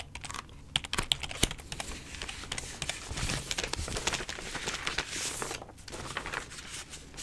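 Pages of a paper file being flicked through, a steady run of crisp rustles and quick papery flicks with no one speaking.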